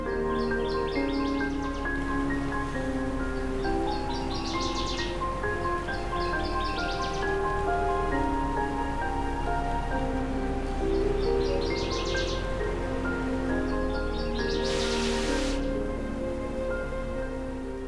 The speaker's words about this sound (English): Nevertheless, I'm finding species such as this northern water thrush, who likely arrived a week or two ago to much warmer weather, singing in spite of the chilly air.